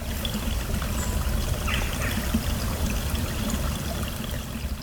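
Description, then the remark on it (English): A steady trickle of spring water coming out of the ground at Rosamond's Well spills and splashes into a pool, a continuous tinkling and dribbling with no voices, softly bright over a low rushing bed, recorded at the end of September. “You may, may be able to hear, dear listeners, just the little tinkling of the water in the background that's coming out of the ground and falling into this pool in front of us.”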